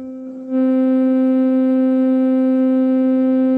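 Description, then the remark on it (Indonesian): A steady, buzzy synthesizer oscillator tone holds one low pitch, starting softer then jumping louder after half a second and sustaining evenly with bright harmonics, no voices. “Ya ini sih bunyi bunyi osilator kayak gini.”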